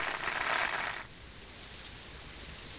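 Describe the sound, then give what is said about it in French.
Steady rain of a thunderstorm patters and hisses without pause, a heavier, brighter downpour in the opening second before easing into a softer, even shower. No one speaks. “J'allais dire la pluie, mais là je change, l'orage.”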